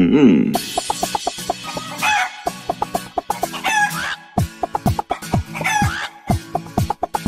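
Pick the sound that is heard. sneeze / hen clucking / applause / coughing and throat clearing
hen clucking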